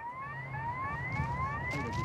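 An alarm siren is triggered before an air ambulance takes off at Orly airport. It repeatedly sweeps upward in pitch, rising tones cycling quickly over a steady low rumble, loud and continuous with no voices.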